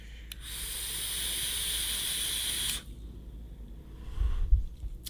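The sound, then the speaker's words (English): A steady hiss of vapor from an e-cigarette filled with Azeroth e-liquid, airflow open about two slots, being drawn on for over two seconds, broad and airy, then stopping, followed by quiet and a few low soft rumbles of exhaling. “Still still on the airy side, but let's uh let's actually vape it. We're actually going to vape the Azeroth.”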